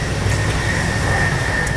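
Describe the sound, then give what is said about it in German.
Loud, steady rumble of a moving train heard from between carriages, with a constant low roar and a sustained mid-pitched whine running throughout, no voices. “Das also ist ich immer sehr interessant, lautes zwischen den Türen, zwischen den Wagen.”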